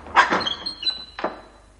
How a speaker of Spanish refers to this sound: Los criados del hidalgo cierran la puerta y el escudero se queda fuera.